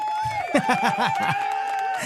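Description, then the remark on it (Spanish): A crowd applause and cheering sound effect on the radio program Vive tu historia: a lively crowd cheers and applauds, with excited whoops and laughter rising over a dense, steady wash of clapping. It's loud for a couple of seconds. “Oye, ese efecto, Luigi, me encanta porque se escucha como si estuviéramos 40, 60, hasta me invita a la fiesta, mano.”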